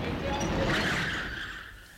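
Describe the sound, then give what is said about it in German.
A car pulls up with its tires skidding, a sustained high squeal over the low rumble of the engine that eases off as the vehicle slows. “Ein Auto kommt.”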